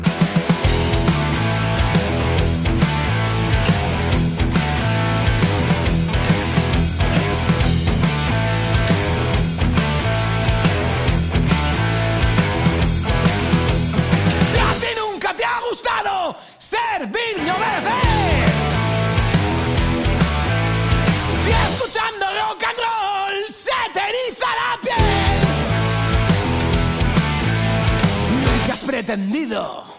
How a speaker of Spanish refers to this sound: Escuchamos a contracorriente de la última bala.